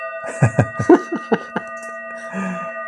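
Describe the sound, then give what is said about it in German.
Two gong strikes ring out with steady, sustained metallic tones that hum through the whole moment, while a series of short, sharp knocks and rustles sound over the resonance. “Ha, zwei Gongs.”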